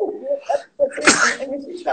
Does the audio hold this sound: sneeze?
yes